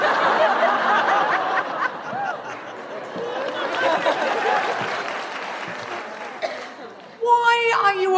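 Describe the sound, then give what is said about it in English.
An audience in Birmingham applauds steadily for about seven seconds after a man answers 'brownie points', the clapping mixed with scattered laughter and crowd murmur, before a single voice starts talking over the fading noise. “applauding that?”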